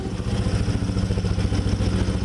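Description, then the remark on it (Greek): A heavy snow-clearing machine's engine runs steadily, a low rumbling drone with a rhythmic mechanical clatter and no voices. “Επιχειρούν στην περιοχή πάνω από 30 με 35 μηχανήματα και ο σκοπό μα είναι να είναι ανοιχτό το δίκτυο για να μπορούν να εξυπηρετούν κάτι και σε κάποια έκτακτη στιγμή.”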